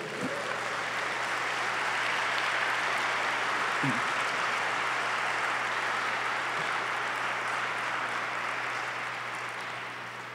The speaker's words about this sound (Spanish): Si vas a aplaudir, sí apláudele a Jesús.